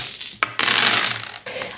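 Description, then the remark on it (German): Dice clatter across a hard tabletop in a brief, rattling burst of clicks and tumbles, moderately loud, with no voices; they are rolled during a tabletop role-playing game and the result is a 3. “Ich meine, ob ich einen Aspekt einsetze, kann ich mir ja nach dem Wurf immer noch”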